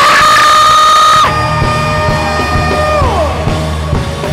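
audience screaming together

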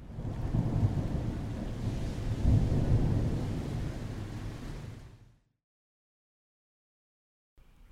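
thunderstorm with rain

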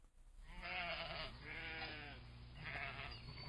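sheep bleating

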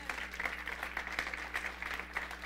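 audience clapping

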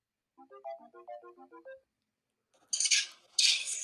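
phone call ringing tone

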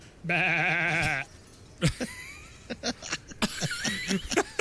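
goat bleating

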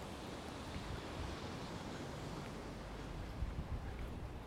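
wind and waves

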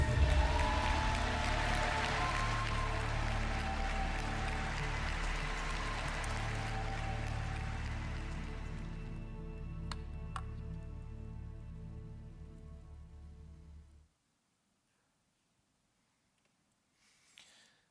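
long applause

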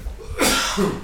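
sneeze

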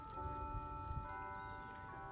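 bell ringing

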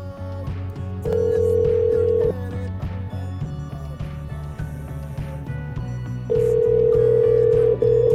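telephone line ringing

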